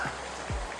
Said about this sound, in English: Uh, sorry uh, for, uh, you know, I'm out here recording in a storm right now.